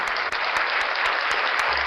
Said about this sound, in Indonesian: Oke tepuk tangan lagi itu kita semua.